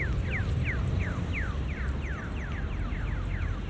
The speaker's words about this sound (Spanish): Y ya estamos en la calle, en Madrid. Caminando. El sonido, como de pajaritos, indica que el semáforo para peatones está en verde.